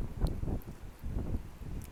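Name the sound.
wind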